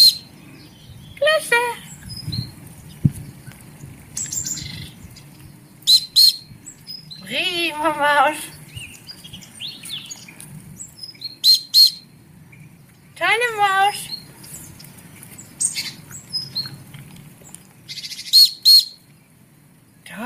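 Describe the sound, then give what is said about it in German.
Two short, warbling dog training whistle blasts sound a few seconds apart, fairly loud, with scattered bird chirps and soft background noise around them. A trainer blows the whistle just before a dog sits, introducing the whistle as a signal to sit. “Ich pfeife jetzt unmittelbar, bevor sie sich setzt.”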